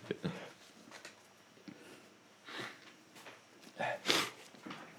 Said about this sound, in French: attendez, excuse-moi et excusez-moi, hein, messieurs, dames, il faut que je me mouche. Je suis désolé.